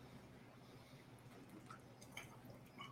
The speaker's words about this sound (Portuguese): deixa eu tomar água aqui, olha só o negócio que eu estou tomando água, desculpa aí, viu? Eu, eu, próxima vez eu prometo que eu vou trazer um negócio mais chique.